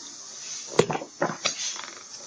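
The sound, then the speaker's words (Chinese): Dolphin calls used to alert the others on finding food: a sharp click followed by three or four short, scratchy buzzing bursts in an uneven rhythm, with a steady high hiss underneath and no talking. “见面时，他们用这种声音来打招呼；发现食物时，他们用这种声音来通知大家。”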